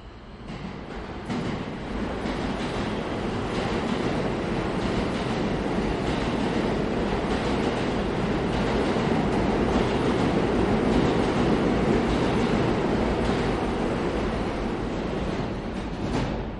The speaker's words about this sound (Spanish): Sección 4. Los sonidos de los suburbanos. A continuación vamos a escuchar el sonido del metro de Nueva York y seguidamente el metro de Madrid. Disfrutad.